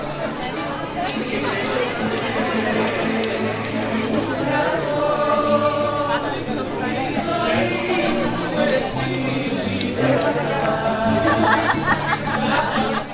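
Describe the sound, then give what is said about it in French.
A packed crowd chatters around bars at night in the Spanish Quarter of Naples, Italy, many overlapping voices blending into a steady, fairly loud murmur, with bursts of laughter and the odd clink of glasses throughout. “La foule se presse contre les bars et dégorge Rivière Ordule.”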